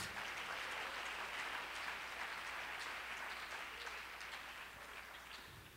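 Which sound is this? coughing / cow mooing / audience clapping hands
audience clapping hands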